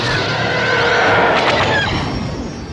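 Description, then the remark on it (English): An enemy sci-fi fighter spaceship roars past in a loud, screaming fly-by, its harsh whooshing howl sweeping in pitch for about three seconds before easing slightly, heard alone without any talking; the sound is built from a car passing a microphone on wet pavement. “That spaceship is, is an enemy spaceship. That's not a friendly spaceship. It's roaring at me.”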